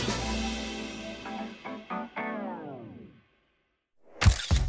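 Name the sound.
camera shutter clicking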